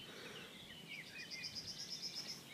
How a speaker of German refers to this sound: Und immer wieder hört man auch als Laie vielleicht die Klappergrasmücke, mhm. die hier vorne so